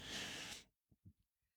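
A sharp, loud sneeze bursts out, a single explosive hiss of breath that cuts off abruptly, followed by a few soft breathy sounds and sniffles.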